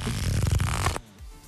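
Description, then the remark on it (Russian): A deck of playing cards being shuffled, a dense, fast flutter of crisp papery flicks lasting about a second before stopping abruptly, with no voices. “Что это за звук? Это карты, карты, колоды карт.”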